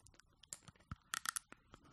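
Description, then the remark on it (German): A dry tearing and crackling as the seal of a Frangelico liqueur bottle is ripped open, a quick run of sharp, uneven bursts with a denser cluster near the middle and no one speaking. “Da Liegt der Francelico-Deckel auf meinen Spekulatius.”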